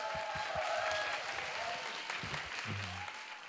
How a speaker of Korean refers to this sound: 우리 자 오늘 협찬해 주신 모든 분들 대박 나시라고 여러분 큰 박수 한번 부탁드립니다.